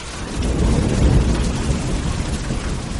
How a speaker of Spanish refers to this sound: invitó el chamán, y una vez más un trueno realzó su grito.